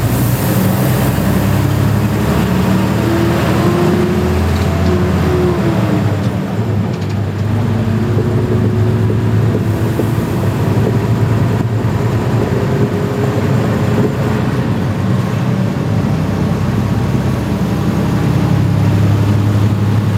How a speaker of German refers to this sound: Ja, wir fahren mal ein bisschen Schienenbus.